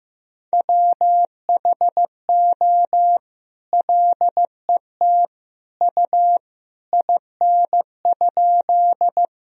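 Morse code beeps at a moderate 15 words-per-minute pace, sending sentences of common words and abbreviations, a single clear mid-pitched tone keyed into short dots and longer dashes with brief gaps between letters and words, with no voices.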